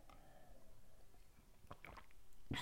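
Quiet mouth sounds of someone sipping a drink: a few soft wet slurps and swallows, ending in a brief louder gulp or clink, with no talking.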